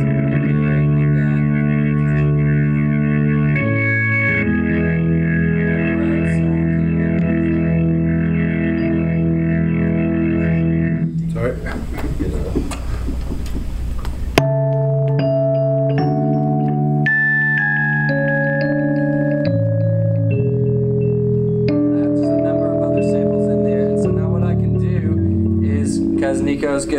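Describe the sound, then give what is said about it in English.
A keyboard plays a MIDI track of sustained chords that shift through different sounds, from piano and Rhodes tones to synth patches and an organ sound, with a burst of harsh noisy texture midway. Steady and loud throughout. “And so like this first one, like uh, you can see it's highlighted up here was the piano, and then the Rhodes, and then like a, uh, a, uh, the different synth sounds, and then I also have like uh, an organ, an organ sound.”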